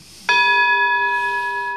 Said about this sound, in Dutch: Dat is de gong. Als de gong gaat, is het gesprek voorbij.